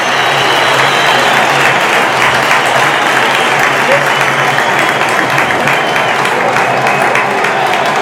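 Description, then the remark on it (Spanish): A large crowd at the Castalia football stadium applauds steadily as injured player Raúl Sánchez leaves the pitch, a dense, sustained wash of clapping that stays loud and even throughout, with a faint murmur of voices mixed into the roar. “Aplausos por parte de la afición de Castalia”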